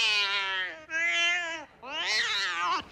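A cat meows three times in quick succession, each call long and drawn out with a rising then falling pitch, loud with no talking.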